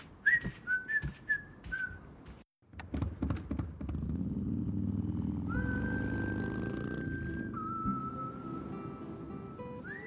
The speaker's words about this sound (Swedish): Men så reklammusik då? har du tänkt på då? Ah, det, är, alltså, det är någonting med visslingar, att det ska visslas liksom.